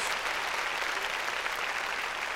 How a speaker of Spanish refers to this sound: Démosle palmas fuertes a nuestro Señor. Gloria a Dios.